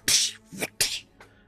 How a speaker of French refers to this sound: C'est encore dans les vapes, je donne une grosse gifle.